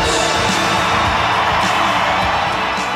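A large arena crowd at a wrestling event roars and cheers continuously as Jake the Snake Roberts is introduced, loud and dense, with a washed-out reverberant echo filling the space and scattered whoops rising above the din.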